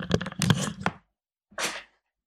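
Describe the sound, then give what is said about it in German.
A window being opened: a cluster of sharp clicks, knocks and rattling over about a second, a pause, then a brief softer scraping swish. No talking. “Ja, warte, ich muss jetzt einmal kurz das Fenster bei mir aufmachen, sonst wird Dampf da herin.”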